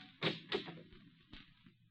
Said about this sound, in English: The door's flung open, and Elena stands on the threshold.